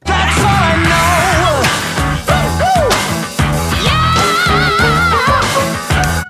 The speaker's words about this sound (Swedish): ska, jag, ska jag dra igång jingeln och se vad som händer? Ja, gör det.